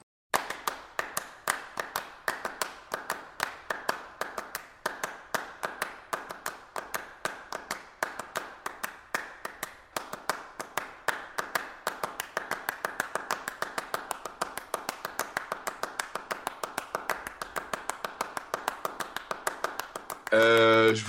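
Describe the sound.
Two sets of hand claps interlock in a fast, steady rhythmic pattern, dense sharp cracks repeating for about twenty seconds, with a brief voice entering right at the end.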